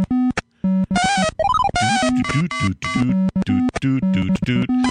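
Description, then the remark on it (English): Harsh 8-bit Commodore 64 video game audio from a Donkey Kong-like early platformer: rapid square-wave bleeps and jumpy tones, with a rising warbling sweep partway through, loud and busy with no speech. “Now, if you're hearing this and thinking, boy, it sounds like Donkey Kong, and if you saw it, if you're in the chat room and you're watching, you're like, oh, this looks a lot like Donkey Kong.”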